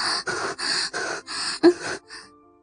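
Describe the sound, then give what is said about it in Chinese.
A woman lying face down on a bed after orgasm gasps and pants in quick, breathy bursts, about six in a steady rhythm, the last one sharper with a brief voiced catch before fading to quiet. “就趴在了床上喘息了起来。”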